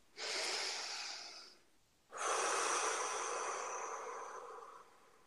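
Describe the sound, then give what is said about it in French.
Two long, breathy airflows: an inhale of about a second and a half, a short pause, then a slower exhale lasting nearly three seconds, soft and hissy with no voice. “Une respiration.”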